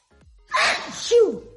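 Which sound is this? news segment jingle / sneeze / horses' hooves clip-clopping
sneeze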